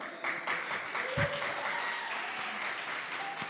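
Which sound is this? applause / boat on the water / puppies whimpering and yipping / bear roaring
applause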